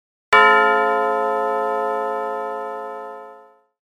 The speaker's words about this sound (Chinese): 钟重重的敲了一下，敲得很重，观众都吓了一大跳。